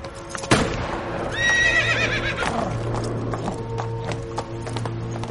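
A horse with a rider on its back, outdoors as rain begins, grows restless at a gunshot far off and lets out a loud, wavering neigh, preceded by a sharp knock, then stamps and shifts with scattered hoof clops and a low steady hum underneath.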